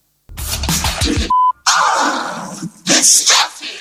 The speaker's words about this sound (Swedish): Ja, det är det där a ljudet Ja. Det är ju den klassiska scratch-skiveljudet.